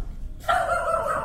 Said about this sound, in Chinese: 邻居的狗狗还是一直吠。